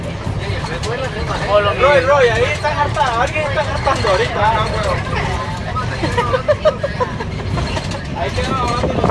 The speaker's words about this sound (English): but I just wanted to record actually on this bus because it's, it's kind of a moment I never want to forget. and we're like driving over little rivers and like through a canyon.